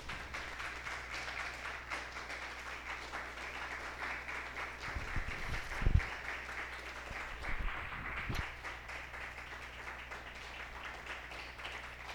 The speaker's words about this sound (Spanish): ¿Pueden dar un fuerte aplauso al Señor, por favor, amados hermanos?